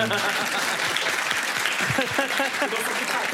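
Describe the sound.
Steady, dense applause fills the whole stretch, a continuous crackle of many hands clapping, with excited voices and a few cheers rising over it.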